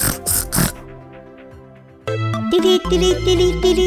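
A few short, loud pig grunts burst out at the start, then a bright musical jingle with sustained tones takes over and carries on to the end.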